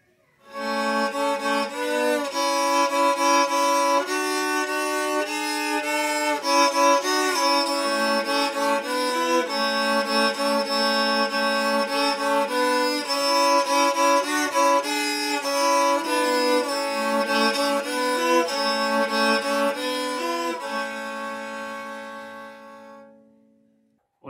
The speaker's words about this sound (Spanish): les vengo a presentar este instrumento musical que fue encontrado en la zona central de nuestro país y que se llama radel. Es de tres cuerdas, muy parecido al violín, pero se ubica en las piernas. Los invito a escuchar.